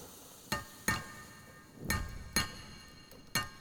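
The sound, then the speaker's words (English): Five sharp metallic strikes of a hammer on an anvil land at an uneven pace, each leaving a bright ringing tone that hangs briefly over a quiet background, with no voices. “Turns to the hammering on the anvil.”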